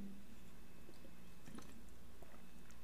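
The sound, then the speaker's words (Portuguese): Quiet, wet swallowing sounds, a soft gulp or two of water with small liquid squishes in between, heard alone with no talking. “Então, se tu viu isso, é porque eu tomo bastante água.”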